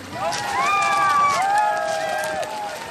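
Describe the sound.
A small group of people on board a rubber boat cheers and whoops excitedly as the boat reaches shore on Lesbos, their voices rising and falling in overlapping shouts over a steady wash of outdoor noise, loud throughout.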